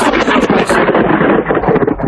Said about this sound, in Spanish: Madre mía, vaya, vaya, vaya trueno. Eso es un trueno que hacer un efecto sonoro. Esto sí es un directo.